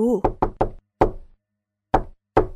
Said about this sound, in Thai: ความจริงแล้ว ทุ่งนาและที่ดินนั้นเป็นของยักษ์ผู้ดุร้าย ที่อาศัยอยู่ในปราสาทตรงสุดถนน เจ้าแมวเหมียวสวมบูทได้รีบวิ่งไปที่ปราสาทแล้วก็ได้เคาะประตู